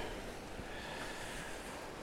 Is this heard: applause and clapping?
no